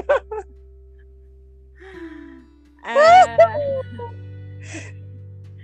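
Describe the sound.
Heavy, strained breathing as someone does push-ups: a few breathy gasps and short grunting bursts, with a low steady hum underneath and a brief vocal sound.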